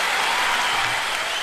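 Steady audience applause, a dense, continuous wash of many hands clapping at an even loudness from start to finish, with no voices standing out, as a show audience welcomes an investment director from Sequoia Capital China.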